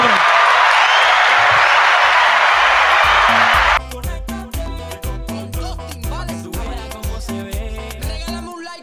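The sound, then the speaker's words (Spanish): A burst of dense, steady audience applause lasts about four seconds, then cuts off abruptly as a punchy, rhythmic music track with a thumping beat takes over. “Un aplauso para …”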